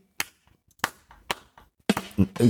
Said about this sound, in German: Ja. Aber ich, da, da wäre immer noch so ein Low- oder äh, Slow-Clap, wenn Hab ich, so, ich nicht.